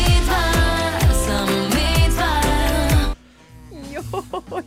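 A pop song plays loudly with a steady thumping beat and full instrumentation, then cuts abruptly to a quieter stretch where a sung vocal line swoops over sparse backing. The sung line is 'mi dva, samo mi dva', which a radio listener hears as 'medvar, samo medvar'.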